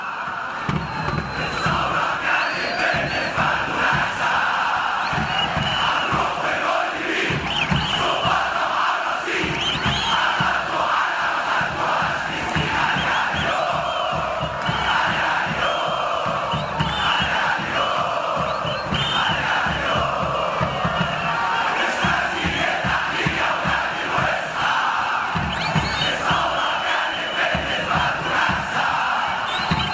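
A dense stadium crowd of Egyptian football ultras chants songs and cheers for their clubs in the stands, a steady, loud wall of voices that holds at full volume for the whole stretch, with rhythmic swells and shouted bursts.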